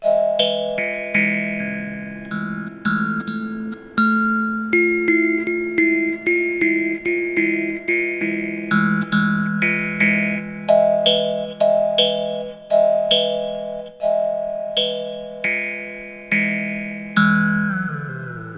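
A melodic instrumental line plays steadily with sharp note attacks whose tones ring on and blur into a spacious reverb wash, with the reverb effect just switched back on, the tail lingering after the last note. No one speaks.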